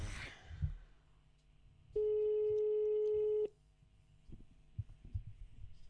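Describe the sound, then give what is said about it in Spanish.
A single loud, steady ringback tone from an outgoing phone call to a teacher from Tormas Integradas lasts about a second and a half, surrounded by soft background rustling and low handling noise. “Vamos a llamar al maestro”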